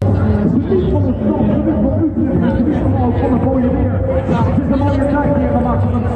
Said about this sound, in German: Im Hintergrund hört ihr schon der Utrecht-Marathon hat begonnen. Die ganzen Leute, die den Halbmarathon laufen, äh, für die geht es jetzt los.